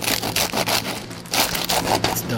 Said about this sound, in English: when you hear that kind of noise. It's super crunchy, and that's what we really want. So you're using a bread knife to cut this meat? Yeah, I'm using a bread knife to cut through the uh, the skin of the lechon